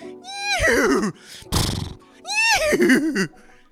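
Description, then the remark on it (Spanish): A person's voice mimics a horse whinny twice inside a car, each a loud, wavering, descending neigh, with a short breathy burst between them. “Y ahí empiezo a hacerle sonidos de caballo porque ahí el bicho entra completo.”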